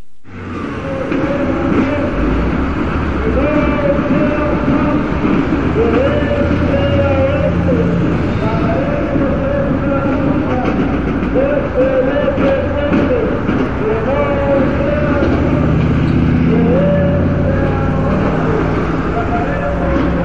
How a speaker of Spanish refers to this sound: Marcha en Avenida Hidalgo, Centro Histórico, Distrito Federal.